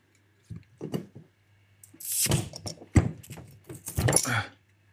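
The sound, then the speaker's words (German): A bottle of Grevensteiner Original naturtrübes Landbier is opened on a magnetic wall-mounted opener: metallic clinks and scraping, a sharp snap as the cap comes off, and bright bursts of fizzing hiss. “Ich, ich halte jetzt mal diese Flasche da rein. Hier kommt das Geröff von Grevensteiner Original, naturtrübes Landbier.”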